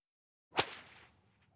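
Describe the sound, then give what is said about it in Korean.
A single sharp whip crack, a whip lashing in Christian self-flagellation during a plague, snaps out after a moment of silence, loud, followed by a brief fading swish and faint rustle with no talking. “역병이 창궐하자 기독교인 사이에서는 채찍질 고행, 플라절레이션이라는 독특한 형태의 예배 방식이 유행했다.”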